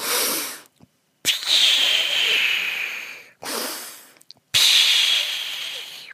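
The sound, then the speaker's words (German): A voice imitates a grandmother's wheezing breaths as she climbs stairs, sounding like a whistling kettle, with several loud, raspy breaths carrying a high whistling tone and short pauses between them. “Mein Vater sagt dann immer, Oma, hör auf mit diesem Teekessel pfeifen.”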